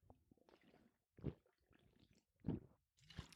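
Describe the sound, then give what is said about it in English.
Wet gulping sounds of someone drinking water from a water bottle, with three distinct swallows spaced about a second apart and soft mouth and liquid noises in between, no talking. “I got to get a sip of water here.”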